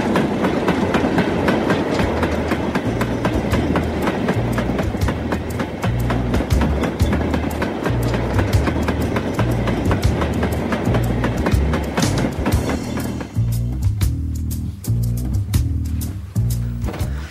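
A train rolls steadily along the tracks, its wheels beating out a loud, rhythmic clickety-clack over a heavy low rumble, with no voices throughout.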